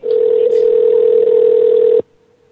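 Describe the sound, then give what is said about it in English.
A steady telephone dial tone hums loud for about two seconds while a call is being placed, then cuts off abruptly, leaving only faint residual tone. “Uh, yeah, I'm, I'm working on it. I'm trying to call.”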